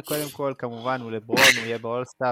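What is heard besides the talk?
sneeze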